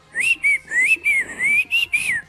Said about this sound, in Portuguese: O que, que esse assobio? Meu Deus. Não, esse assobio aí eu tava censurando pra eu não falar a palavra de baixo calão aí